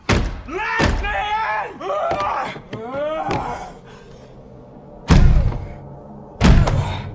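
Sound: pounding on a door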